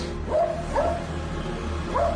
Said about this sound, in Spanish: donde los perros ladran y deambulan solitarios